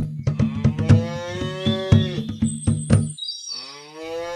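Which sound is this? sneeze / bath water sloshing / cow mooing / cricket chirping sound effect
cow mooing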